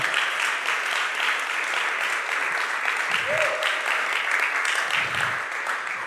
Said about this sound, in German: Geben wir denen einen starken Applaus. Come on.